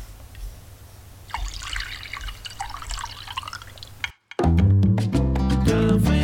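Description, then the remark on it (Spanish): Coffee is poured into a cup, a steady trickling splash for about three seconds over a low hum, then a brief silence before music begins. “Ahora sí, presentados los titulares, servidito el café, el programa de lunes ya puede comenzar.”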